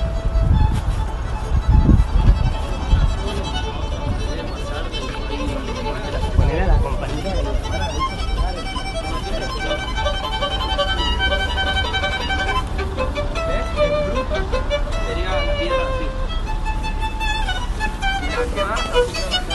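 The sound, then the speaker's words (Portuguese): A street violinist plays a continuous, fairly loud melody, with low rumbling traffic and city noise underneath and a brief burst of louder street sound early on. “Então, para terminar, eu vou chegar perto de um cara aqui tocando violino.”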